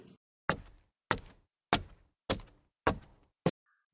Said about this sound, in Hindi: आहट आई थी दरवाजे की सीढ़ियों से उतरने की